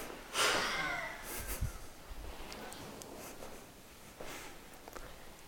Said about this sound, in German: Atmet vollständig aus.